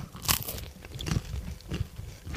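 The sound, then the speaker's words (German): Crunchy bites and chewing of bread, with a sharp crackly crunch at the start followed by several softer, irregular chews and small crackles. “Nimm ruhig mal ein Stückchen Brot, dann kannst du schon mal ein bisschen was hier Dankeschön.”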